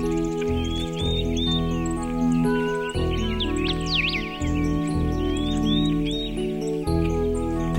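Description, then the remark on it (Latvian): Skylarks trill and chirp in spring in quick, twittering bursts, fairly clear but layered over a steady bed of sustained instrumental music that runs throughout. “Dziedāja cīruļi, bija skaists pavasaris.”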